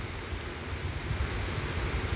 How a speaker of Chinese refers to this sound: 我正在阿里山上，那这是我的方式。那你们也可以闭上眼睛，聆听雨声，先专注在声音。我们只听雨声，